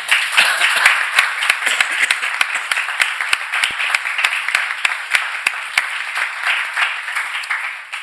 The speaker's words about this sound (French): Sí, se merece un aplauso porque sabíamos que iba a ser. Vous méritez l'applaudissement.